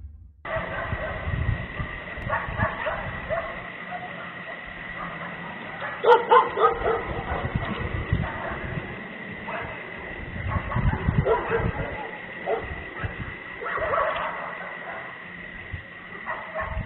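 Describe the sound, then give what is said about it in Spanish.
Several dogs bark in an agitated, overlapping chorus, with one dog whimpering and crying in between; the barking comes in uneven bursts over a steady background hum, with a sharp peak partway through. Recorded by cameras that film the Popocatépetl volcano around the clock. “Para escuchar perros y luego el grito.”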